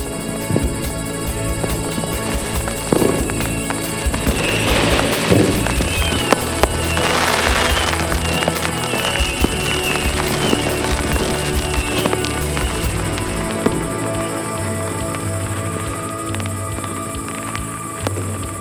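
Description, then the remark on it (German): Fireworks exploding in a dense, continuous barrage of loud crackles and pops, with a few sharper bursts standing out early on and no voices. “Der Geruch von abgebranntem Feuerwerk lag in der Luft, als das Paar friedlich in einem Zelt neben dem Jeep schlief.”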